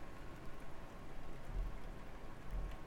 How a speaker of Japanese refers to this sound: 雨もねちょっと緩くなってきたのでこれから止むでしょうまあ皆さん風には気をつけて雨で見通しも悪いんで事故にも気をつけて。